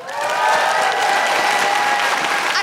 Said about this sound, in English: Um, can I just say a huge, huge round of applause as well for uh, Michael, our tour manager, and everyone here at the James Hay Theatre.